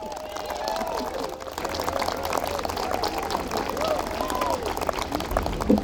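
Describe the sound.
A crowd claps steadily for several seconds, a dense crackle of many hands that stays fairly even throughout, with voices murmuring and calling out underneath.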